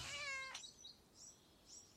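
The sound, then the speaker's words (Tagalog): A cat lets out one clear, fairly loud meow lasting about half a second, followed by a few faint, high little chirping sounds in an otherwise quiet setting with no talking. “Pero isang beses daw, umuwi ito na may dalang pusa.”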